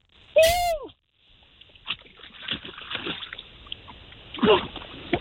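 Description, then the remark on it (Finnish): A loud splash as a person jumps into the Baltic Sea, followed by several seconds of water sloshing and churning, with a second surge of splashing near the end. “kuulokkeista virta pois luonnollisesti, kun mennään tuonne veteen.”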